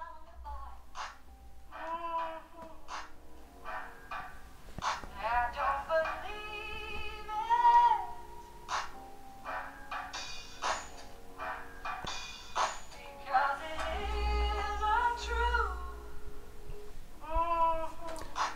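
A disco-influenced house track plays throughout, with a steady thumping beat, a deep bassline and bright, chopped melodic samples that swoop and repeat over the groove at a moderate level.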